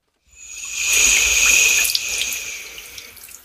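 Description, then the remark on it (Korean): A white-noise recording of running water played in a hospital restroom to help with urinating: steady water pours continuously like a tap filling a sink, with a bright hissing rush and faint splashy drips, fairly loud, no voices. “소변 잘 나게 하는 소리 같은 게 있더라고요.”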